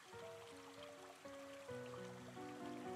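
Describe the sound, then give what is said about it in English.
Water from a stream rushes and trickles steadily, a continuous wash of sound beneath soft, sustained musical tones that shift slowly. No one speaks. “As you look at the stream, you notice the water rushing down.”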